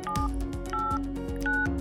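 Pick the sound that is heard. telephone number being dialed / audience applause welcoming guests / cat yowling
telephone number being dialed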